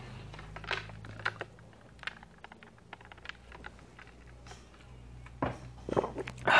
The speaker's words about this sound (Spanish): Una disculpa, estaba tomando agua.